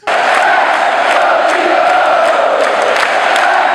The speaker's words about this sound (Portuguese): Título que a rigor não vale absolutamente nada, mas serve para ensaiar o grito de campeão que o Morumbi não ouve desde que Murici Ramalho era técnico de futebol e Rogério Ceni goleiro.